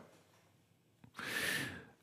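A dog snores and snorts: a quiet stretch and a small click, then one rough, wheezy snort lasting under a second that rises and fades. No one speaks.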